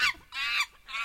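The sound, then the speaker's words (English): Monkey calls: three shrill, piercing hoots in quick succession, loud, with short gaps between them and no one talking. “It's the sound of a monkey.”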